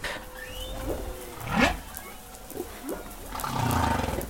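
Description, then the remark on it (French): Humpback whale song recorded underwater: a series of rising and falling moaning calls, one swelling louder midway, over a steady hiss of ocean background, with no voices. “Ce qu'on entend, c'est que les chants, en fait, c'est une combinaison des séquences successives d'unités sonores.”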